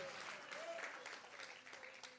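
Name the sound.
loud applause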